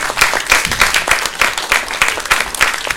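An audience applauds a person seated in the audience, steadily for about three seconds, a dense, sustained patter of many hands clapping at once, moderately loud, with no voices standing out.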